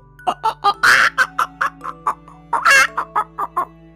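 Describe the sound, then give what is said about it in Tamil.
A storyteller's voice imitates a hen's cackling laugh: a quick run of about a dozen sharp clucks broken by two louder, drawn-out squawks, clear with no other sounds. “அதை கேட்டதும் இந்த கோழியோ”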